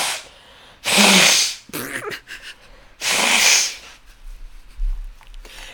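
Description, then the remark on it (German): Two loud, forceful nose blows, each a harsh hissing burst lasting about a second, separated by a short pause with faint rustling and breathing. “ganz kurz, ich muss kurz Nase putzen, ne? Das kann jetzt ja. auch richtig laut werden.”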